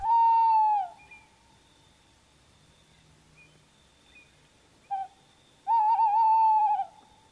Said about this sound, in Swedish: Det är lätt att känna igen att det är en uggla men att sen beskriva utseendet ytterligare kanske inte är helt lätt. Men en kattuggla, om du får syn på en uggla på dagen så är kattugglan medelstor i storleken